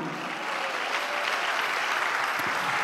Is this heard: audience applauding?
yes